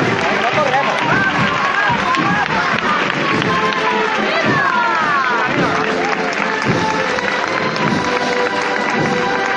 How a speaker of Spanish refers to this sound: rompe de frente con el aplauso del barrio aquí congregado.